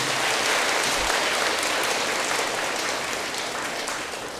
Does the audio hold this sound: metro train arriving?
no